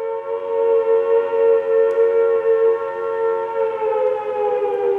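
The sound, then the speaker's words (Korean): A steady noon siren wails continuously, a sustained droning tone with layered harmonics that swells slightly and holds loud and clear throughout, with no voices present. “이때 뚜 하고 정오 사이렌이 울었다.”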